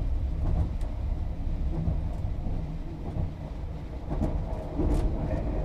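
Steady low rumble inside the carriage of the Marimo night limited express train as it pulls away from Kushiro station in Japan, bound for Sapporo, with continuous rolling noise and occasional faint clicks and knocks from the carriage, no voices present.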